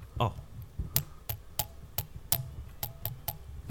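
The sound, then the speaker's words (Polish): Around nine sharp metallic taps on a titanium headphone frame, somewhat uneven in rhythm, each a bright click over a low, muffled background rumble. “To, e, zobaczcie, jak to dudni ta e, e, tytanowa ramka. To... Bo to słychać metal po prostu.”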